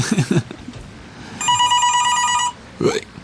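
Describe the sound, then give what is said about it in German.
A telephone rings once, a steady electronic trill lasting about a second, bracketed by brief bursts of talking and laughter before and after. “Da will sich einer beschweren, dass wir Fink bashen.”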